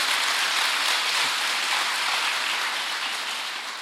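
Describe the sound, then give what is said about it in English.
An audience claps together in a dense, steady wash of applause that stays fairly loud throughout and fades slightly toward the end, with no voices heard over it. “If we're going to clap, we do it together.”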